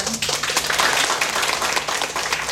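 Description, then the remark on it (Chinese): Warm audience applause thanking the event's host, a dense, steady wash of many hands clapping at once, sustained and fairly loud throughout with no talking over it. “再以热烈的掌声来感谢我们美丽大方的主持人。”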